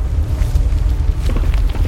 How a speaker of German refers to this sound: Und dann hört er irgendwo auf dem Gipfel ein vertrautes Grollen, eine Lawine.